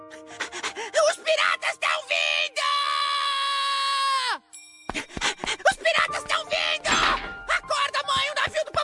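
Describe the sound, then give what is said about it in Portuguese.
A boy lets out a loud, piercing scream held for nearly two seconds, then cuts off abruptly, with busy chatter and voices before and after. “o …, não grite assim, menino!”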